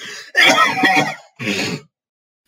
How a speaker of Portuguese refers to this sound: Realmente, eu só tossi.